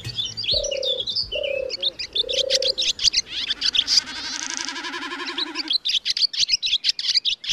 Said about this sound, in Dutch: kwinkelerende zangvogels. 25 verschillende soorten, om precies te zijn, van roodborstje over merel tot specht en koolmees.